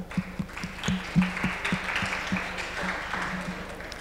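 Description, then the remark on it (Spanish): An audience applauds with a dense, steady patter of clapping that holds at a moderate level for several seconds, with a few sharper individual claps standing out. No one speaks over it. “Se pueden dar un aplauso.”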